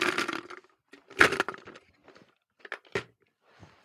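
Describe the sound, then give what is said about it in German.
Paper note number 3 rustles and crinkles as it is handled, producing several sharp, crackly bursts of uneven rhythm with short pauses between them and a softer rustle at the end. No one speaks. “Sorry fürs Rascheln an dieser Stelle.”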